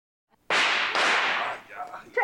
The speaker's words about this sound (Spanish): Llévate los cohetes al patio, ¿entiendes? Descarado. Lo hizo a propósito para asustarnos.